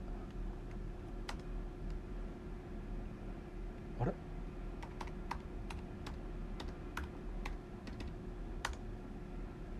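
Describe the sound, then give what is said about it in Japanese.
Scattered, irregular clicks of someone typing on a computer keyboard while opening Analytics, a dozen or so crisp keystrokes over a low steady hum, with a brief rising squeak partway through. “はいすいませんパソコンでちょっと,、えーと、アナリティクスっていうのを開いてるんですけども”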